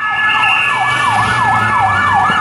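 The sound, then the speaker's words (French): A modern French SAMU ambulance siren, the one in use today, blares loudly, its pitch sweeping up and down in quick, regular cycles over steady electronic tones, with no one speaking. “parce que la sirène du SAMU aujourd'hui c'est ça.”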